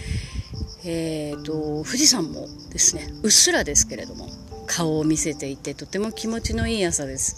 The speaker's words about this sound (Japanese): あの気が付くとセミの鳴き声は一切聞こえなくなっていて秋の虫の声が聞こえていてあゆっくりだけれどもこう季節が変わりつつあるなということを実感しています